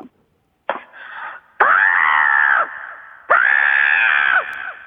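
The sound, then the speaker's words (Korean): A phone-in caller, the second caller on the line, imitates a crow's caw with three loud, harsh, drawn-out calls, the last two long and strained, separated by brief pauses, with no talking in between. “자, 까마귀 들어봅니다. 두 번째 분, 까마귀 큐!”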